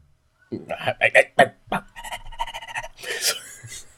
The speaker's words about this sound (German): Muss das auch nicht, muss das auch nicht, muss das auch nicht so ins Mikrofon reinbellen.